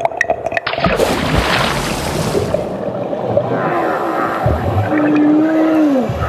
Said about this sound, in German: Ähm, ihr hört schon, wir sind immer noch bei den Schiffen.